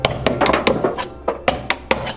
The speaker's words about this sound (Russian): пытается починить заклинившую дверь.